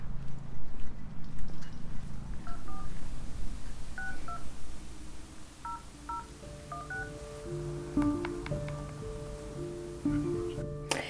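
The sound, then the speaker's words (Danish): A series of short telephone keypad tones as a number is dialed at home to call a former chairman of Hellerup Sailing Club, irregularly spaced beeps over a low background rumble, followed by steadier ringing tones toward the end. “og ham ringer jeg til, da jeg kommer hjem.”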